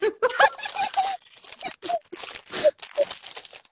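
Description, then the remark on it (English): Crinkling of a snack package being opened: a continuous run of crackly, bright plastic rustles with sharp little pops and crunches, fairly loud, over about four seconds with brief pauses. “you open to something? You could hear that?”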